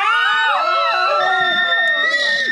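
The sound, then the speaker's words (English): A crowd of church people screams in horror as a pastor collapses during a thunderclap and pulls down a flagpole: many overlapping high-pitched shrieks and wails rising and falling together, loud for a few seconds without pause. “Church people scream in horror.”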